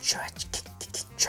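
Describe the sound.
A voice imitates the vinyl record scratch sound used by DJs, with about five quick, breathy, hissing chirps in an uneven rhythm, fairly soft.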